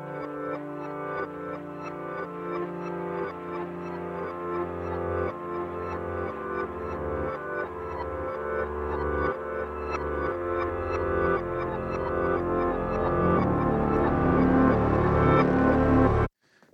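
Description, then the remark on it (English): Dense ambient music played backwards, with a delay matching the tempo added before reversing, its layered sustained tones swelling up gradually and cutting off abruptly in a repeating pattern, steady and fairly loud, with no voices, ending suddenly. “Sounds like something backwards.”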